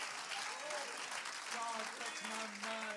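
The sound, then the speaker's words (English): An audience claps hands together in a dense, steady wash of applause that lasts throughout, while a voice sings or speaks over the clapping. “Let's clap our hands.”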